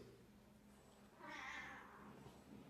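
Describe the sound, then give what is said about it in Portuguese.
A pet cat lets out one drawn-out meow partway through, clear, over a faint low hum with no one talking. “Ó, o gato conversa, viu, gente?”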